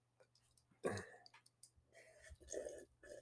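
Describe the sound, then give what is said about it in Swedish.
A person drinking: a loud wet gulp, then a short run of slurping, swallowing mouth sounds, with a faint steady hum in the background. “Drinking, drinking, slurp, slurp, slurp.”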